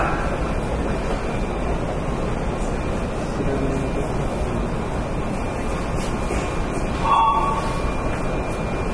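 A Keikyu 1000 series train rumbles steadily at Higashi-Ginza station, a dense, even roar of motor and wheel noise, with a short, bright electronic chime sounding once near the end.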